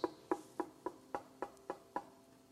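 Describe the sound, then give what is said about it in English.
Eight firm knocks on a door in a steady, even rhythm, each a sharp hollow wooden rap with a brief resonant ring, with no voices present. “Jesus is knocking on your heart's door.”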